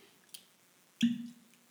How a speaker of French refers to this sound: Ça, c'est le bruit du bouchon qui sort de la bouteille d'Armagnac.